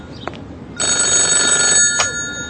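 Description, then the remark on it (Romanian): A telephone rings with a bright, buzzy electronic tone, one sustained ring burst lasting about a second, preceded and followed by brief clicks, fairly loud with no talking. “la telefon.”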